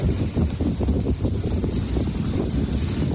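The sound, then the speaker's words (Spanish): Heavy rain and blustery wind from storm Celín roar together on the beach of Apunta in Redondela, Galicia, Spain, in a steady, loud wash of noise, with low rumbling gusts and a constant hiss, no voices present. “Este es el sonido en pleno temporal, una tromba de agua, fuertes rachas de viento en la playa de Apunta, en Redondela.”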